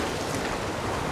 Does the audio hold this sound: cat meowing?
no